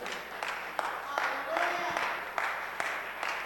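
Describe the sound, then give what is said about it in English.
A church audience applauds during a sermon in a steady, dense wash of clapping, with a few sharper individual claps standing out and faint voices mixed in underneath. “It's a good place to clap.”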